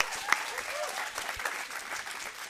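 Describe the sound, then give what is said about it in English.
An audience claps steadily, a dense patter of many hands forming a continuous wash of applause at moderate loudness, with no clear voices over it. “But can we give these guys a big round of applause for coming and joining us?”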